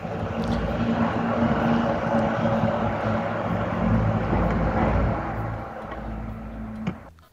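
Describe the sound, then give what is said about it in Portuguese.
A heavy truck passing outside, its engine rumbling loudly and steadily with a low droning hum, easing off slightly toward the end. No one speaks. “Rapaz, rapaz, é, caminhão, é, hein?”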